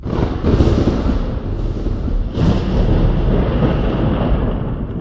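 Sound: thunder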